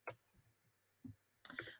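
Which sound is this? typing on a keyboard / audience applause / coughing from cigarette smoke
typing on a keyboard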